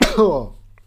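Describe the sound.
A single short cough with a sharp, rough onset that trails off into a brief voiced, throaty tail, fairly loud, followed by near silence.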